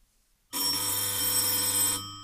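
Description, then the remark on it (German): A doorbell rings once: a loud, continuous metallic jangle lasting about a second and a half, starting abruptly after silence and cutting off sharply, with no voices. “Es klingelte an der Tür und ein Bote übergab einen Umschlag.”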